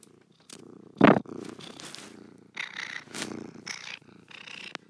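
A cat purrs in a room in a steady, rumbling rhythm, the low vibrating drone rising and falling with each breath, with one brief louder burst near the start.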